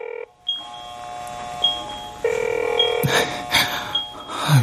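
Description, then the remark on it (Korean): An outgoing phone call to a former senior coworker who quit rings unanswered: a steady electronic ringback tone hums alongside short, evenly spaced high beeps, with some brief clattering noise toward the end. Clear, with no talking. “나는 퇴사한 선임에게 전화를 했다.”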